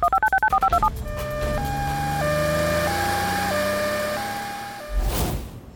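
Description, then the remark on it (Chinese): A quick run of about eight phone keypad beeps as someone dials to call an ambulance, then an ambulance siren wails in a steady two-tone hi-lo pattern for several seconds before ending in a short rumble. No one speaks. “赶快叫救护车！”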